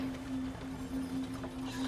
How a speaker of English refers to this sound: you kind of like you hear the footsteps going back.